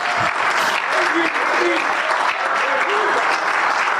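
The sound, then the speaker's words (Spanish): Loud, sustained applause from an audience in the evening, clapping for Christ, a dense steady wash of clapping lasting several seconds, with faint voices calling out underneath. “Es más, démele un aplauso en esta noche, démele un aplauso.”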